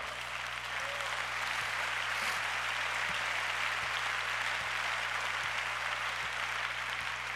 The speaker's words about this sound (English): It's all right. Everybody clap.